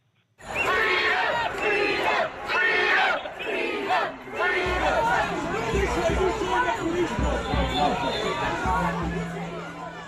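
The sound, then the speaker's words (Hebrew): A large crowd of protesters in the streets of central London, around Oxford, Regent and Carnaby Streets during lockdown, shouts and chants loudly and continuously: rhythmic yelling bursts at first, then a dense roar of many voices with low rumbling underneath, sustained throughout. “הפגנות סערות היו uh, אתמול, uh, אפשר לשמוע חלק uh, מהקולות? בואו נשמע איך זה נשמע ברחובות.”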